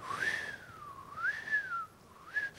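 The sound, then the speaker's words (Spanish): A single clear whistle, imitating an arrow shot from a bow that falls back down and whistles through the air, wavers up and down in pitch over a few seconds, on its own with no talking. “Y esa flecha se fue, se fue, se fue hasta arriba. La gravedad le ganó, comenzó a caer y comenzó a silbar.”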